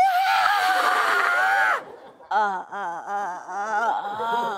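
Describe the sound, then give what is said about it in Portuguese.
A loud, high-pitched scream held for nearly two seconds, then a brief pause and a second wavering, shrieking cry, close to the microphone. A voice appears to be imitating a terrified scream. “E eu aqui deitadinho aos berros. Você gritava?”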